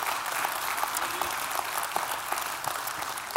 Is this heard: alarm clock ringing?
no